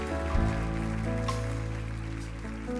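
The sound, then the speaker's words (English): A church audience claps together in a hand clap of praise, a dense, steady wash of applause that holds throughout, with sustained musical tones humming underneath. “Come on, let's let him hear it. Just a, a hand clap of praise.”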